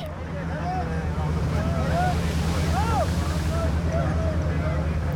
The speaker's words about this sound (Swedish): Deras rop dämpas av vågornas slag mot fartyget.